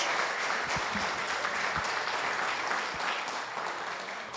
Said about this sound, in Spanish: Y eso merece un aplauso, la palabra de Dios.